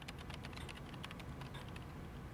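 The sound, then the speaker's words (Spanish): Rapid, irregular clicking of keys as a young man from the IT department types on his computer in the office of Walmart executive David Glass, steady, with no voices present. “David Glass, está en su oficina y un joven del departamento de informática teclea en su computadora.”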